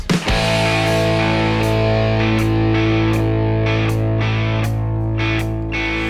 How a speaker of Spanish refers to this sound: Yo soy …, me voy a despedir hasta el lunes que viene, que tengan una gran semana, pero antes los dejo con una canción más.